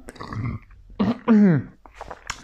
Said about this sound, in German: Und äh, Entschuldigung fürs Aufstoßen.